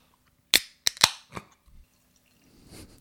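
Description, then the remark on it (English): A beer can or bottle being opened: a few sharp metallic clicks and cracks, then a soft fizzing hiss as it vents, with no talking. “We should now open yeah, it and put it, really it in is. our mouth holes.”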